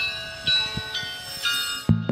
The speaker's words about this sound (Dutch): het protest tegen de nachtelijke klokken. Gewoon klokken, dat is zwaar klokken. Dat geluid kun je vergelijken met, met een trein die passeert. Dat is een heel, een heel dof, dof geluid